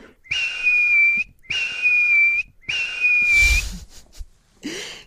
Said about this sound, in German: dessen kleiner, zarter, luftiger Pfiff ist schon so süß.